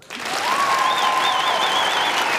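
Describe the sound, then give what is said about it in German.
An audience claps loudly and continuously on the cue word for applause, rehearsing frenetic clapping during a song, a dense wash of applause that starts abruptly and holds steady, with a faint whistle or cheer rising above it. “Immer wenn Sie dieses Wort vernehmen, dann fangen Sie bitte an, frenetisch zu klatschen.”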